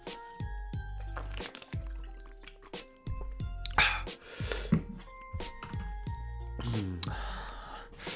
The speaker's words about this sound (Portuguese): Vou só beber um bocadinho de água, se não se importarem.